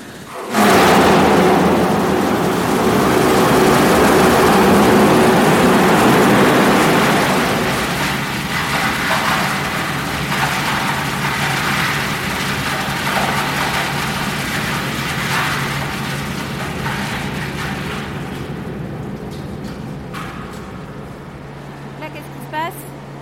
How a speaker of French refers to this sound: Donc, c'est lui qui va s'ouvrir et qui alimente directement euh, les roues de turbine. Donc dès que le robinet va s'ouvrir, ça part en rotation.